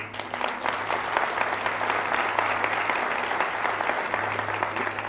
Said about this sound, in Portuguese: Dê um aplauso a ele.